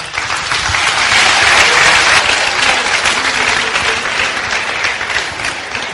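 An audience applauds steadily to welcome a speaker, a dense wash of many hands clapping that starts right away and stays loud and full for several seconds without any voices breaking through.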